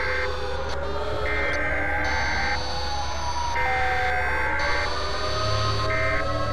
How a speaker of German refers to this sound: Ich erwachte zu dem Geräusch schriller Sirenen.